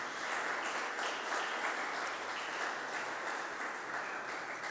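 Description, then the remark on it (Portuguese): An audience applauds loudly for the Lord Jesus, a dense wash of many hands clapping at an even, sustained loudness throughout, with no voices standing out. “E se você acredita nisso, aplauda ao Senhor Jesus bem alto, gente.”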